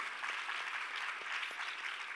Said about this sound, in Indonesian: Ya berikan tepuk tangan bagi Yesus Tuhan kita.